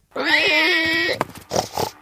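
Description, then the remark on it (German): A curly-tailed pig squeals loudly for about a second, then follows with a few short, rough grunts and snorts, clear with no one talking. “Er hat einen Ringelschwanz, futtert eigentlich alles, was ihm vor den Rüssel kommt und klingt in etwa so.”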